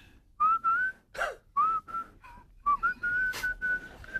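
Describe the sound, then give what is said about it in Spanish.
An island inhabitant whistles a short song tune as a greeting, clear pure notes gliding up and down in several phrases with brief gaps, ending on a longer held note. No one speaks. “se comunican mediante silbidos. pero me dicen que es fácil interpretarlos porque son silbidos, bueno, de canciones.”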